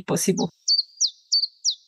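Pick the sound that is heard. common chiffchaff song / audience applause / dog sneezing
common chiffchaff song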